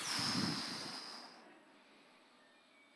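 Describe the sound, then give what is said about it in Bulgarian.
A voice blows out a single loud, breathy, rushing whoosh imitating a sudden gust of wind blowing through trees, lasting about a second and a half before fading into quiet background hiss. “И след това казвах, има ли някой, който може да ръкопляска на Бога изведнъж вятъра духа и дървета пляскат?”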